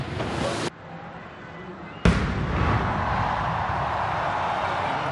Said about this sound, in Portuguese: A cada hora, salvas de tiros de artilharia eram disparadas do Forte de Copacabana.